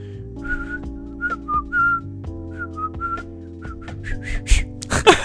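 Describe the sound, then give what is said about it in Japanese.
A person whistles a short melody, hopping between brief notes over a steady sustained tonal backing, ending in a few breathy, noisy bursts. “ちょっと口笛吹いていいですか”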